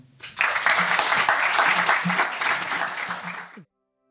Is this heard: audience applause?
yes